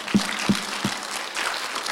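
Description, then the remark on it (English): An audience claps: three sharp, evenly spaced claps ring out first, then a broader patter of many hands joins in, moderately loud, with no voices over it. “Now, let's use our hands this way. Let's clap for”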